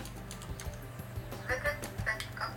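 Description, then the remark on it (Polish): A few soft clicks as the lower-left button of a step counter is pressed and held to reset it, followed by brief high electronic chirps, over a low steady hum with no one talking. “E, I teraz, jak na przykład przytrzymam przycisk mm, ten bardziej u dołu po lewej stronie.”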